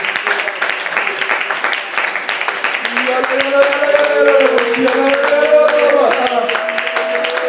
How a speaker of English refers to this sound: Come on, clap your hands and give God a praise in this place.